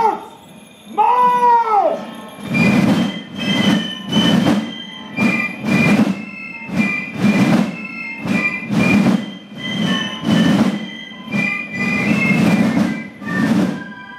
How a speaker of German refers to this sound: Clique, die hier pfeift und trommelt, ist die Gundeli-Clique. Sie feiert dieses Jahr ein Jubiläum, ihres 75.